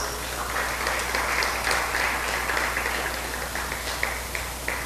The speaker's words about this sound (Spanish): Hasta aunque es clase, debería darle un aplauso a Dios. Denle un aplauso a Dios.